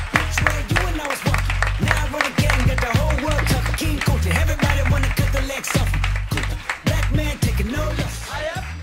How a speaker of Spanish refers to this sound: el aplauso, por supuesto, principal tiene que ser al público lunero que ha vuelto a llenar el Café La Palma. Muchísimas gracias.